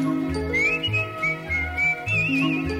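A clear, high whistled melody with a wavering, vibrato-like pitch glides over a steady instrumental accompaniment with a plodding low bass line, played at moderate volume.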